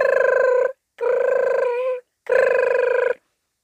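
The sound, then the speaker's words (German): A voice imitates a telephone ringing with three buzzy, trilled bursts, each under a second, separated by short pauses. The fairly loud imitation stands alone, without other talk. “Plötzlich klingelte das Telefon.”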